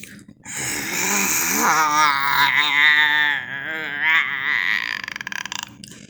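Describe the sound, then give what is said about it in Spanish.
A person imitates an angry wild pig with a decayed, aching molar, letting out one long, rough, strained grunt that rumbles on for several seconds, loud, with no words spoken. “Se lo escuchaba gruñir desde un kilómetro.”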